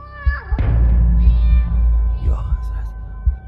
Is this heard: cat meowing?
yes